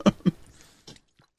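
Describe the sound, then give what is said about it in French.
A few soft mouth sounds of someone taking a small sip of water and swallowing, in short wet gulps and clicks with brief pauses between them and no talking. “Je me permets une petite gorgée d'eau parce que là, euh, ça fait un 10 minutes que je parle, puis euh, j'arrête pas, puis je manque de salive.”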